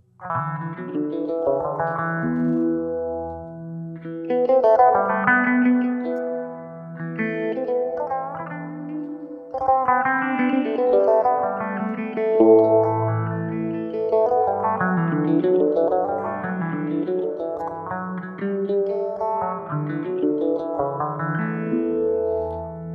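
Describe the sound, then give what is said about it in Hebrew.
An electric fretless-style stringed instrument called the Sirena, able to play quarter tones and fitted with a special pickup that gives sustain, plays a continuous melodic line with sliding, microtonal pitches and effects-laden tone, steady, with no talking. “אוקיי, אז באמת הסירנה זה באמת צליל, צליל של חשמלית, עם, עם צוואר שילוד, זה אומר שהרבי טונים, אני יכול לנגן אותם.”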